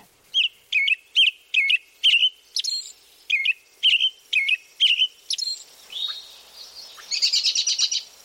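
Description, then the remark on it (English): An American robin calls in a clear, rhythmic series of sharp chirps, about a dozen evenly spaced notes, ending in a quick rapid trill. Alone, with no talking. Recording from the Ornithology Lab at Cornell University. “This is the call of the American robin, courtesy of the Ornithology Lab at Cornell University.”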